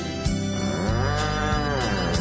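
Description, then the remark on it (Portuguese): A loud, drawn-out ox moo, one long bellow lasting nearly the whole moment, with rhythmic percussive beats from music thumping underneath. “Te afasta pra lá, boi velho”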